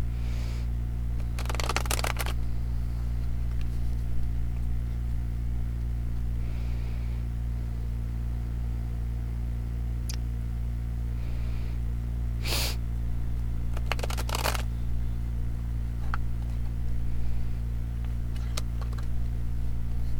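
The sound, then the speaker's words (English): Tarot cards being shuffled in a few short riffling bursts with scattered soft clicks, separated by pauses, over a steady low electrical hum with no talking. “So as I, I was shuffling, I did have a car card.”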